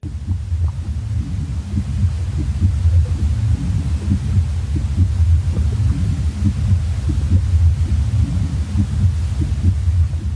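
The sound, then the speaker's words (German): A muffled heartbeat as heard inside the womb during the prenatal period: deep, steady rhythmic thumps pulsing under a constant low whooshing rumble and faint hiss, loud throughout, with no voices. “Und dann gibt es noch den Herzschlag, der während der pränatalen Zeit zickt 5000-fach übertragen wird.”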